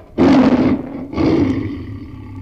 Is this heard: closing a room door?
no